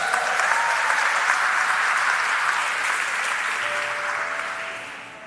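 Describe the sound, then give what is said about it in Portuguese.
Sustained applause from an audience in an auditorium for the man who paints the wall, a dense steady patter of many hands clapping that holds strong for several seconds, then gradually thins and fades toward the end, with no talking over it. “Vamos aplaudir o Mamal, querido, aqui.”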